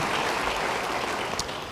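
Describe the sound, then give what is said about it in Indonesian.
An audience applauds together, a steady wash of many hands clapping at once, dense and sustained for the full moment without any voices rising above it. “Siapa yang kepengen? Beri tepuk tangan bagi dia.”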